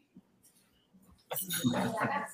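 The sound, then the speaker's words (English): Glasses clink together in a toast, a bright jangle of several rims touching at once amid loud, overlapping voices after a quieter moment. “So perfect, cheers, perfect guys.”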